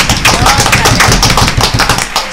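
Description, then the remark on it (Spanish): A burst of applause sound effect played on request: many hands clapping in a dense, steady crackle that stays loud for a couple of seconds without pause, with no voices over it. “Eh, ponme los aplausos, Isidro.”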